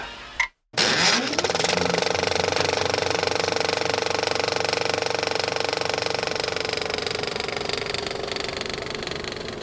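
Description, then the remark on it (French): After a short click and a moment of silence, the cooling fans of digital cinema projection servers spin up into a loud, steady whirring hum with a constant drone that holds unchanged to the end. “Le ronflement des ventilateurs a remplacé la rotation des bobines.”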